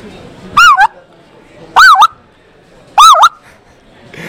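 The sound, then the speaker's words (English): A person imitates a speckle-belly goose, letting out three loud, yelping calls spaced about a second apart, each a quick warbling two-note cry, with quiet between them. “Give me your best of each one of them. Let's start with the spec.”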